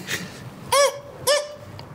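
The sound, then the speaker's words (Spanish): A voice imitates a strange dog-like barking cough once had while sick with a badly inflamed throat, twice, each short, loud burst ending in a high, squeaky squeal, with a brief pause between the two. “estaba yo enfermo tenía como muy inflamada la garganta y una tos, pero esas, esa tos como así como de perro rara, pero era con un con un este chillido así”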